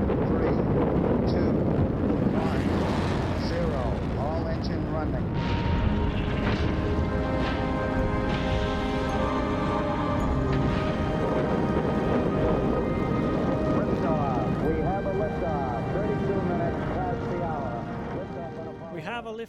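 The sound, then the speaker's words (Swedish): The Apollo 11 rocket launch to the Moon on 16 July 1969: a thunderous roar holds steady for the whole stretch, a dense, crackling rumble that only begins to ease at the very end, with voices faintly audible underneath. “liftoff, we have a liftoff.”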